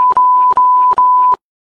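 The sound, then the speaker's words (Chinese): A steady, high-pitched censor bleep tone covers a speaker giving his contact details on a Chinese-language show, running in bursts, briefly dipping three times, with muffled speech sounds underneath before it cuts off abruptly. “呃，跟那个导播说一下，最后别打马赛克给我的声音啊。”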